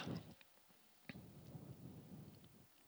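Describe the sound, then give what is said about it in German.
A stormy rumble of thunder rolls low and steady while sharp scattered impacts, like hailstones striking, snap through at irregular moments; no voices, just the weather filling the space. “Wenn es Hagelwetter kommt vielleicht.”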